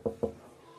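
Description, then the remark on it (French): A group of visitors knocks twice quickly on the wooden door of a house, fairly loud, followed by a faint lingering hum. “Ils arrivent devant chez Sibawai, ils toquent à sa porte.”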